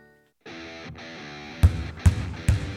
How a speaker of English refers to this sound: That's the sound of winter in one of the Forest Youth Athletic Association's most popular sports, basketball.